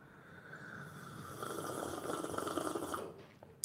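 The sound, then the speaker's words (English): A loud, drawn-out slurping sip of coffee: a rough, airy rush of sucking noise that swells for about two seconds and then cuts off, with no talking. “That's how we sip coffee around here.”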